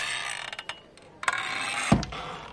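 A wooden tavern door with no lock, opening in two halves, creaks on its hinges in a few short, ratcheting clicks, then swings shut with a dull thud. No voices.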